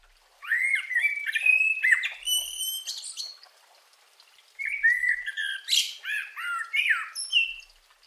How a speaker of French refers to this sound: mon préféré, le chant joyeux du merle, auquel il ajoute perpétuellement de nouvelles variations et touches de créativité.